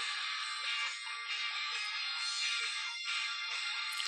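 Tinny, thin-sounding hard rock music plays continuously, with dense distorted midrange and almost no bass, like a song coming from a small speaker. No one talks.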